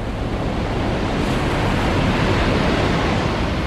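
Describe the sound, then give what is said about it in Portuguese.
A loud, continuous roar of rushing water flooding out of a cave and dragging people along surges steadily for a few seconds, a dense churning wash with a slight swell midway and no voices. “a água bate nele e vai arrastando ele para baixo”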